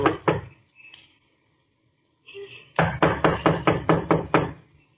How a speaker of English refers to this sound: Well, knock on the door anyhow.